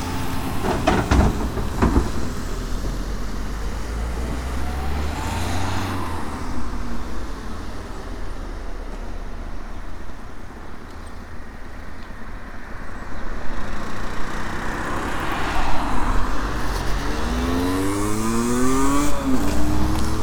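Steady roar of passing road traffic on a main road at Forces Cross, with vehicles swelling and fading as they pass, one engine revving up near the end; no one speaks.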